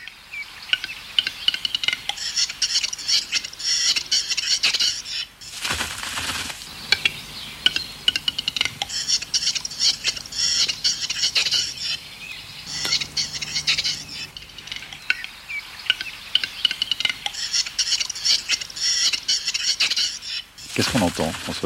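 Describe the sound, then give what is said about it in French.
A male capercaillie's courtship display song: sharp dry clicks accelerating into bursts of harsh, scraping whetting phrases, repeated in several strophes, clear with no one talking. “là, c'est un coq avec les différentes strophes de son chant, parce qu'on décrit plusieurs, euh, plusieurs, euh, comment dire, plusieurs strophes dans son chant.”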